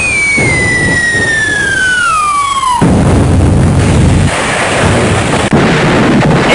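A falling whistle glides downward for a few seconds, then a loud explosion sound effect, announcing a music premiere, bursts in and leaves a dense, roaring rumble that fills the rest. No voices.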